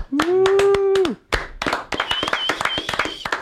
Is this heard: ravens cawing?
no